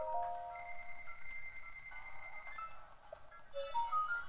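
Bright electronic purchase chimes from a video game shop ring out in quick succession as ancient arrows are bought with in-game money, with sustained tones and a few rising notes near the end, clear with no talking.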